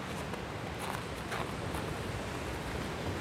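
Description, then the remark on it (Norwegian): A steady, dense roar of wind and surf in the dark as the Varangerfjord washes in against the beach stones at Langbunes near Kiberg, with a few brief splashes rising from the continuous rush. No voices are heard. “Helt nede ved Varangerfjorden ligger Langbunes og Komagdalen vi parkerer så nært vi kommer, og i mørket og vinden hører vi Varangerfjorden slå inn i fjæresteinene.”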